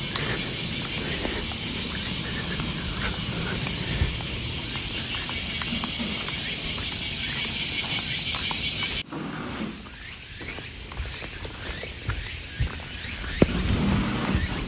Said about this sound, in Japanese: セミも鳴いてますけど鳥も結構いろいろ混ざっていてまいろいろ鳴いてますね、えー、時間が10時前9時半過ぎぐらいかななんですけどまあいろんな鳴く生き物が起きてきて泣いてます